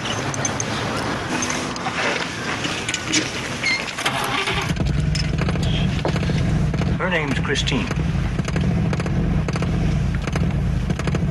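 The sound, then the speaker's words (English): A voice speaks briefly, then a car engine turns over about a third of the way in and settles into a loud, steady rumble, with a couple of rising revs partway through, in a preview of the film Christine. “Sonny, you ever owned a car before? No. I just got my license. Start her up.”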